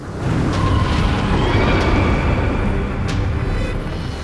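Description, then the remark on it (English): A deep, booming crash of thunder rolls on as one loud, continuous rumble for several seconds, heavy in the low end, with no voices. “Before he could go on, the booming crash of thunder filled the air.”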